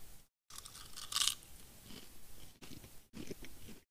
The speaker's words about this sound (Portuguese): Mas licencinha, vou só pegar um salgadinho e, e dar ele na coca de novo. Pera aí, vocês vão ter que ouvir eu mastigando.